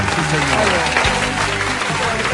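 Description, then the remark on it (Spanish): An audience applauds for Sensei Verónica Rosero in a steady, dense wash of clapping that stays loud throughout, with a voice faintly audible underneath the clapping. “Pido un aplauso para la Sensei Verónica Rosero, que Esperamos pronto esté de vuelta con nosotros.”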